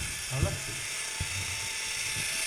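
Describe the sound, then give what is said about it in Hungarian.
A Fiat Punto running on a performance dynamometer on a stage gives off a steady, high-pitched whirring whine, like spinning rollers or an electric drill, with a couple of brief low murmurs of voices underneath. “Igen, vigyázat, kedves hallgatók, tűzföldtől Tokióig teljesítménymérés következik a színpadon Fiat Punto”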